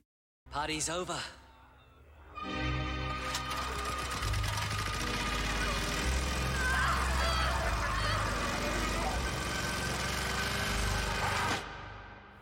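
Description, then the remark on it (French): A lawnmower engine roars loud, running steadily for several seconds with a rattling, chugging drone, after a brief strained vocal cry at the very start. It is from the film Brain Dead, in which Lionel kills the infected with a lawnmower. “Pendant les 30 dernières minutes du film, l'invasion atteint son point d'orgue et Lionel se charge d'éradiquer les infectés à coups de tondeuse à gazon.”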